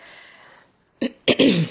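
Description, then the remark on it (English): Someone clears their throat after a brief quiet moment: a short rough burst, then a longer, louder raspy scrape, with no talking. “I really need to clear my throat before I could spill out anything next year.”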